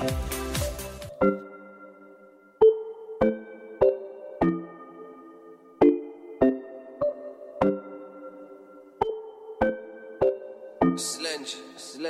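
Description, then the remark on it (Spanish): A new Latin pop single from Warner Music plays on the Latin Hits radio station, its sparse opening clear: ringing keyboard-like chords struck one at a time in a steady, unhurried rhythm, with someone talking briefly at the very start and end. “tengo el enorme orgullo de presentar, creo, por primera vez en radio a nivel nacional, el nuevo sencillo”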